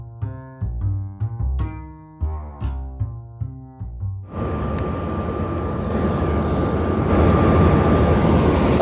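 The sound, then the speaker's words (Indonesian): Short melodic notes play for a few seconds, then a loud, steady engine drone with a broad rumbling hiss takes over, continuous, heard on board a sea ship under way leaving Java, Indonesia. “ya gue lagi di kapal ini, lagi di kapal air, perahu, eh perahu, kapal laut ya.”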